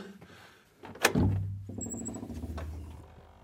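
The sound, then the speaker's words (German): A door in a building with sundials on its outside wall and a clockwork opens with a sharp clunk of the latch, followed by a low, drawn-out creaking rumble as it swings, moderately loud with no one speaking. “So, jetzt sind wir schon wieder bei einer weiteren Tür.”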